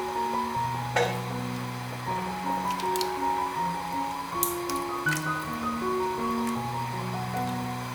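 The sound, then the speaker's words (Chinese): Tofu pieces drop into a pot of potato soup seasoned with soy sauce and black vinegar, simmering just before a full boil, making a few soft, wet plops and squishy splashes at uneven intervals over steady background music. “熬煮到还没完全滚的时候，放入豆腐。”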